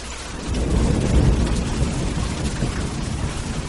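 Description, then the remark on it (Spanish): Steady fine rain hisses while a deep, rolling rumble of thunder swells and lingers underneath, loud and continuous for the whole stretch, with no voices, on a stormy day. “Era un día tormentoso.”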